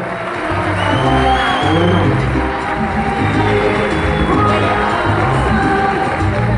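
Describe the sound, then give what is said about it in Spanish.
A loud, sustained burst of audience applause for a group of leaders, mixed with cheering and shouts, a dense wash of clapping and voices that stays steady for several seconds without dropping off. “Un fuerte aplauso para esos grandes líderes acá, por favor.”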